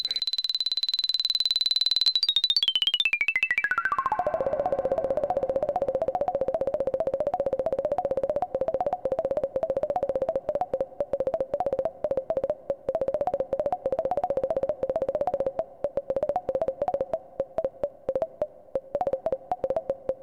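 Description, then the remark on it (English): A synthetic electronic tone made with two simple oscillators starts high, glides steeply downward, then settles into a steady, slightly warbling buzzy drone that continues alone and fairly loud. “i could make tones for example that sounded like a changing vowel ooh that kind of sound, but done with only two simple oscillators, which in the day and still was a very great economy in compared to the methods of making synthetic tones.”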